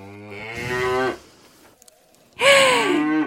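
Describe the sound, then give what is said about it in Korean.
A real cow moos twice in a KBS Cool FM Lunar New Year special segment, a long low bellow that rises and fades, a brief pause, then a second louder moo. Clear, with no talking. “야, 이 살짝 설렜소에 진짜 리얼 소 사운드가 들어가 버리니까 약간 당황스러운데 좋습니다.”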